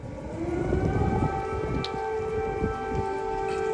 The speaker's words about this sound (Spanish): El sonido de las sirenas que alerta de posibles ataques rusos sonaba en las calles de Kiev.